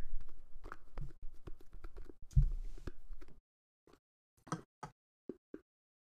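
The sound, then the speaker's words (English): Beer sloshes around inside a can of Collective Arts Fest Pineapple Vanilla IPA, a quick run of irregular splashy knocks that thins into a few sparse, isolated sloshes before going quiet. “Oh, I have more than a last sip left. Can you hear?”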